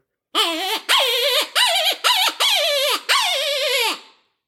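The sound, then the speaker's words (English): A general rabbit distress call blown on an open reed call: about six loud, wavering squeals in quick succession, each rising and falling in pitch, with the last cry drawn out longer. “so I'll start with a little bit of a rabbit distress, just the general kind of distress sound.”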